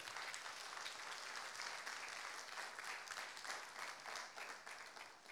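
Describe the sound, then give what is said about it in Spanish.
An audience breaks into sustained applause, dense overlapping clapping that stays steady and loud throughout, with no voices standing out above it. “Hermano, imagínense que hasta los científicos dan una ofrenda de palmas al rey.”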